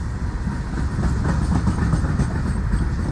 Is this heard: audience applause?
no